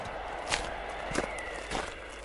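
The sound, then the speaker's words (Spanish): Three distinct footsteps of someone approaching land at a slow, even pace over a quiet background, each a soft, crisp thud, fairly steady in loudness, with no voices. “Ahí viene, dijo Herbert White al oír el golpe del portón y unos pasos que se acercaban.”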